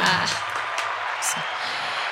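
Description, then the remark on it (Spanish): An audience claps steadily for about two seconds, a dense, even crackle of many hands at a fairly loud, constant level with no clear pauses. “Aplausos también ahí, por favor.”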